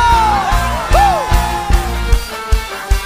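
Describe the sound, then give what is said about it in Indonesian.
An audience claps and cheers hallelujah for God, loud overlapping voices with rising whoops, over a steady music backing with regular low beats. “Boleh tepuk tangan sekali lagi yang meriah bagi Allah. Sorakan haleluya.”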